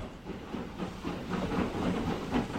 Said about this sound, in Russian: поезд медленно тронулся, возя Шерли в пригород, где она жила